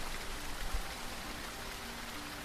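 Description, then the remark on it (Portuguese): Steady rain falls continuously, a dense wash of pattering drops hitting a surface at an even level, with a soft low thump partway through and no voices. “Ainda tá chovendo? Tá mais ou menos agora.”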